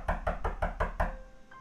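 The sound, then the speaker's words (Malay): Six rapid, evenly spaced, loud knocks on a door, a reenactment of knocking heard at night, followed by a short quiet tail with a faint tone. “malam bunyi macam orang ketuk pintu uh-huh.”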